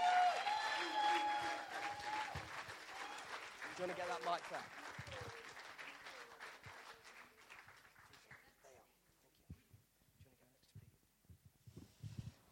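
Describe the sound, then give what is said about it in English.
An audience bursts into applause as two people are invited to the stage. A dense wash of clapping is loudest at the start and gradually thins out over several seconds, with a few scattered claps and murmurs lingering. “Let's give them a massive round of applause.”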